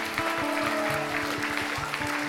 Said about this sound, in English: Well done. Round of applause again for our wise men.